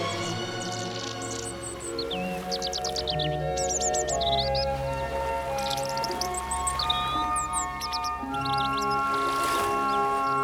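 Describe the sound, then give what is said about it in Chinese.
Small birds chirp and tweet in quick, high-pitched bursts throughout, sometimes overlapping, over a steady low droning hum. No one speaks. “他在海上不知道漂流了多久，太阳刺眼的光芒和小鸟的叫声再度将他唤醒。”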